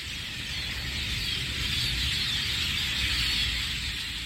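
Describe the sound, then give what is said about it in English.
A dense, continuous chorus of many birds chirping and twittering at once, like a large flock, steady throughout with a low background rumble and no talking. “That is the sound of all of the birdies flying past my house and flocking to my window”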